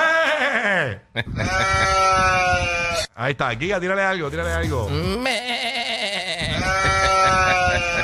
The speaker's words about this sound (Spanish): eso suena como una vieja. Eh, una, vieja, una cabrita vieja. suena como una vieja.